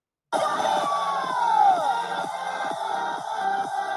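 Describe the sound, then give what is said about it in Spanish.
A dense, loud crowd at a workshop screams and cheers while dancing wildly to pounding, steady disco music, with one shrill voice sliding downward early on; the noise starts abruptly and stays constant throughout. “bueno, toda la gente como desatada, bailando como locos, chillando, o sea, todos allí.”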